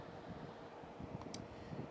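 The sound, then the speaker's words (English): A train rumbles by, a steady low roar with broad hissing noise, and a brief high-pitched squeal partway through; no one speaks. “If you can hear the train in the background, I do apologize for that.”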